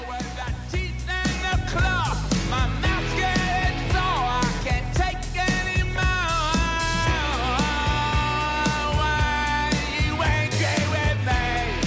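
A rock band's song plays at a steady, full volume, with pounding drums, driving guitars and a singer's voice sliding over the dense mix throughout.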